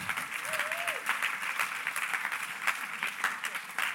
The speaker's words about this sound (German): Also alle die, die Polizisten sind, haben einen Applaus, genau.